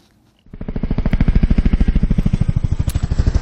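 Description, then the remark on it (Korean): A helicopter rotor, not a drone, starts up after a brief silence and keeps beating loudly, a fast, steady thudding chop with a broad engine roar underneath, no voices. “어, 드론 소리 아니고요. 헬리콥터 소리입니다.”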